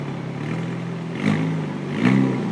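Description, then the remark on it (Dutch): A lightweight sports car engine idles with a steady, throbbing low rumble, rising briefly twice as the throttle is blipped. The car was sent from Paris. No one speaks. “En dan hoor je als je ermee rijdt dit.”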